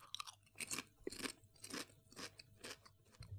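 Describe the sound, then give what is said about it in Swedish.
Crisp crunching of a salted country-style potato chip being chewed, with a rapid series of sharp, brittle bursts repeating roughly every half second; no talking. “nu ska jag ta ett potatischips här.”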